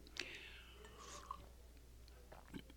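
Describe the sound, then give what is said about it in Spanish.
Quiet slurping as someone takes a couple of small sips of strong black coffee from a small cup, with soft mouth and swallowing noises and no talking. “Voy a echarme un, sorbo ni tacita de espectro porque.”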